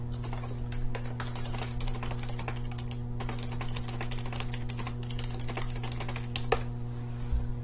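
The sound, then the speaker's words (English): Steady, rapid typing on a computer keyboard as a message is typed telling someone he can be heard, with irregular clusters of sharp key clicks over a constant low electrical hum, moderately loud with no one talking. “just just tell him, type to him that uh-huh. we can hear him, okay.”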